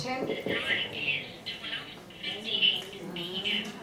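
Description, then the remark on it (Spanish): A talking watch announces the time in English through a tiny, tinny speaker, its thin synthetic voice coming in short clipped phrases, fairly clear. “Aquí tengo la hora en inglés para que también la escuchen.”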